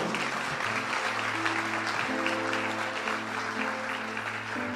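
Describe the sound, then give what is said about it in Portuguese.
A church audience applauds the Lord steadily for several seconds after hearing that an Instagram fundraising campaign reached almost 50% of its goal in 48 hours, a dense wash of clapping hands, while low sustained keyboard chords hum underneath. “Pode aplaudir o Senhor.”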